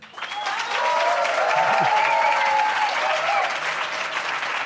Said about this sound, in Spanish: A ver, un aplauso general.